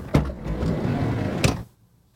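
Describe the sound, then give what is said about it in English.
A van's sliding door rumbles along its track between two solid clunks, one at the start and a heavier one as it slams, fairly loud, then silence. “that is a van sliding door.”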